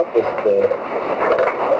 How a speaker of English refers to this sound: oh dear, I'm echoing. Oh dear, I'm echoing.